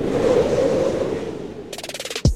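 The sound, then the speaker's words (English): A tornado roars as a dense, steady rumble of wind noise, then gives way to a quick run of rattling pulses and a sudden heavy thump at the end. “Yes, this is what an actual tornado sounds like.”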